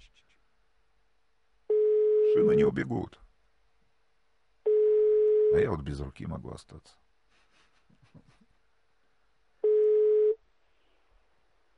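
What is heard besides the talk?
telephone ringing tone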